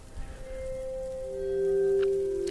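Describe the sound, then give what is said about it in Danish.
Slippery ice creaks underfoot as someone steps carefully on it at about 2°C, a drawn-out, tonal groan that sustains steadily and swells louder toward the end, over a soft crackling, patter-like background. No one speaks. “Jeg kan høre isen knage.”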